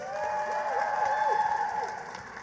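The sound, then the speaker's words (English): An audience claps steadily for a couple of seconds as a vote by applause for Guillermo del Toro's Pinocchio as favorite in the animated film category, a dense wash of hands with a few rising whoops or cheers mixed in, fading slightly at the end. “First of all, let's take a vote by applause.”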